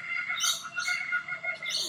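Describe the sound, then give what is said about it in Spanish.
Raucous calls of kookaburras, a bird species native to Australia, ring out in a loud, continuous chorus of repeated cackling bursts, several birds overlapping, with no talking. “Cucubaras. Parecen monos, pero no lo son.”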